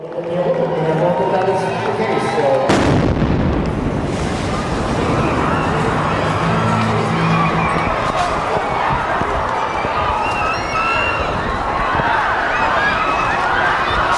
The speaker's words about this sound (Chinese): 那在波士顿的马拉松爆炸案里面。